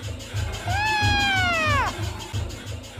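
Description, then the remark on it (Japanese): A single drawn-out meow from a black cat named Pluto, clear, rising slightly and then falling away, over a low pulsing rumble in the background. “だが黒猫に当たらないだけの理性は残っていたしかし猫の方は男の変化に気づいたようである”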